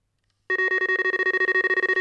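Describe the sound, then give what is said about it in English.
A new electronic fishing bite alarm beeps in a rapid, continuous run of short tonal pulses, loud, starting abruptly after a moment of silence with no voices. “Got my new alarms delivered today.”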